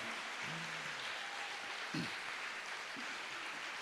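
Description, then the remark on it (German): Steady audience applause welcoming guests, a dense wash of many hands clapping at an even level throughout, with a few faint voices or calls surfacing briefly over it. “Gebt ihnen erstmal einen Applaus.”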